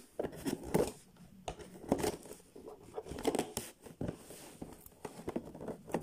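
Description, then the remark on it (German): Adhesive tape rings holding a package's closure being peeled off while unpacking, in short, crackling bursts, with rustling and crinkling between pulls, moderately loud, no voices. “ah ich hasse immer diese Tesafilmkreise. Ah, die um diesen Verschluss zu halten.”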